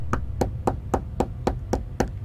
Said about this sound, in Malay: Saya pun masuk balik Dalam bilik hotel Baring atas katil Dalam masa 30 saat gitu Pintu bilik hotel saya sekali lagi diketuk